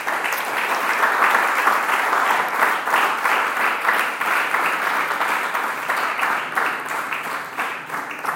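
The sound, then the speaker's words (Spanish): A crowd breaks into loud, sustained applause for the biblical King Josiah, dense overlapping claps filling the whole stretch at a steady level with slight swells, no voices standing out. “Vamos a darle un fuerte aplauso a Josías.”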